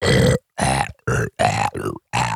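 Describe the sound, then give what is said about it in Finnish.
A person makes six short, rough growling vocal bursts as a singing style, rolling the tongue back while growling, each a gravelly, throaty grunt separated by brief silences, loud with no ordinary speech. “Kun laittaa kielen rullalle ja örisee.”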